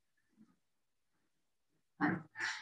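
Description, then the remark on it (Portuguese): A dog barks twice in quick succession, two short, harsh bursts following a stretch of near silence broken only by a faint low grunt. “acho que cachorro está latindo.”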